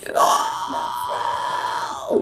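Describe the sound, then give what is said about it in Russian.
A single sustained vocal fry scream, demonstrated as a noisy singing technique: a harsh, crackling, gritty voice held steadily for about two seconds, fairly loud, with a brief rise in intensity just before it cuts off. “А давай в, при- в примере еще покажем. mm Ну, то фрайс, э, допустим.”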